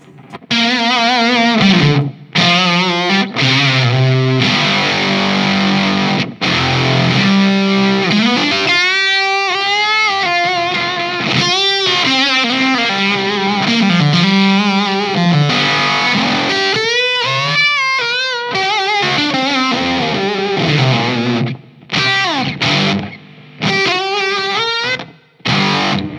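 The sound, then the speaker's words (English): An electric guitar played through a high-gain fuzz pedal plays sustained, saturated notes and bends, thick and buzzy with a dense distorted tone, loud and continuous for nearly half a minute with no talking. “yeah, this is this is like that's a lot of fuzz. That's a lot.”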